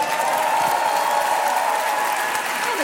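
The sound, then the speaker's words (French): A large live crowd at the Stade de France applauds and cheers continuously, a dense, loud wash of clapping and shouting that stays steady from start to finish with no pauses. “Avec un public, cette ambiance, on vous a chargé ou quoi”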